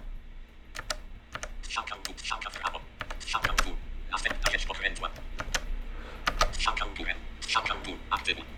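Rapid clicky keystrokes from a Logitech MX Mechanical computer keyboard, typed in uneven bursts with brief pauses, fairly loud, with a low background hum throughout.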